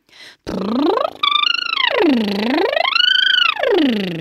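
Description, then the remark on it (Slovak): A voiced lip trill vocal exercise, with air pushed through to make the lips vibrate, giving a buzzing flutter that slides smoothly up and down the vocal scale in a few wide sweeps, fairly loud, with no talking. “aby sa mi rozochveli tie pery, tak potrebujem do toho dať aj ten vzduch.”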